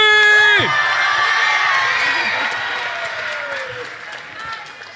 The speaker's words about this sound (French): Allez, pour l'applaudimètre, indicatif à 3, faites du bruit pour Lockins. 3, 2, 1, du bruit